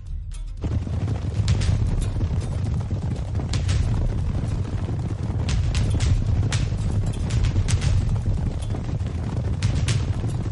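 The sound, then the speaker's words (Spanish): Cavalry horses charge toward rebel Protestant infantry in a dense rumble of galloping hooves, many pounding at once in a fast, continuous thunder that stays loud throughout, with no voices. “Los caballos cabalgan rápidamente hacia los rebeldes.”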